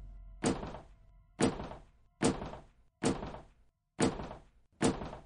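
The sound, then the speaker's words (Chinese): An axe chopping into a wall: six heavy, dull thunks at a steady pace of about one per second, each blow loud and ringing out briefly before the next. No voices. “斧头砍打墙壁的声音似乎是很好的催眠曲，我的眼皮开始觉得很重。”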